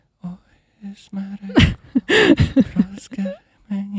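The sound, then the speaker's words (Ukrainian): A male voice imitates the shy, trembling singing of a secondary-school boy: wavering, off-key vocal bursts around a low steady pitch, broken by breathy, strained moments, moderately loud, with no words spoken. “Але є такий цікавий вид вокалу, яким володіє кожен сором'язливий хлопець в середній школі якийсь звучить десь так.”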